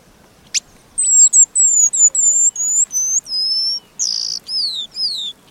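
A paradise whydah calls with a rapid series of about ten high, thin whistled notes, some sliding downward, sharp against a quiet background.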